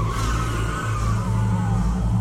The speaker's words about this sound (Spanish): Me tomó más tiempo del habitual darme cuenta de que me estaba acercando rápidamente a otro vehículo estacionado a mitad del camino. Pisé el freno de golpe. Me detuve a tiempo, pero no por mucho.